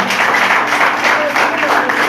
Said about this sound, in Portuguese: Uma salva de palmas para Jesus que ele merece.